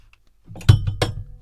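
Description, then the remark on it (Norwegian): A glass knocks against a hard surface: two quick clinks with a dull low thump under them, about a third of a second apart, fairly loud, with no voices. “Oi, det var glasset som var det.”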